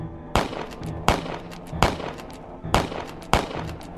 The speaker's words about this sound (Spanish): En defensa personal, nosotros abrimos fuego y le disparamos en repetidas ocasiones.